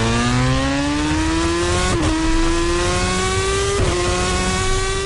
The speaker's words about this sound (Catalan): demostrant la potència i la velocitat d'una Superbike imitant el seu so, que per si no ho sabeu és aquest.